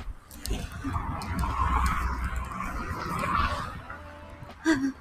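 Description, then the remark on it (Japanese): A car passes by on the street, its engine and tire noise a steady rumble that swells and fades, with a brief sharper sound near the end. “あ、車に引かれる。”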